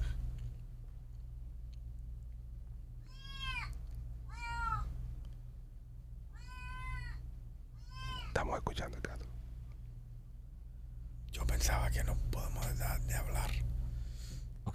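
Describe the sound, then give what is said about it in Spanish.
A cat meows four times in a row, clear, each a rising-then-falling call. A steady low hum runs underneath, and bursts of breathy, hissing noise follow. “y dame dos minutos con el gato.”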